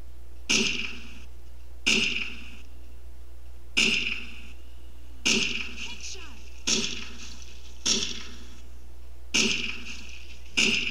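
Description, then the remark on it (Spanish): A video-game style weapon sound effect, played in an app's try mode, fires eight times, each a sharp, punchy burst with a brief ringing tail, spaced at a steady interval of about one and a half seconds, with no talking. “Y nos va a poner un cierto límite para que escuchemos cómo es el arma.”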